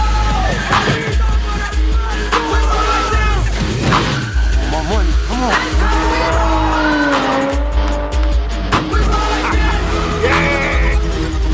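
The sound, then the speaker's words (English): A car drives hard around a course set up in a garage, engine roaring and tires squealing and skidding in repeated rising and falling sweeps, loud throughout, with some voices faintly underneath. “It, this, this is such a great concept, like setting up the course in their garage to drive it uh, before the heist.”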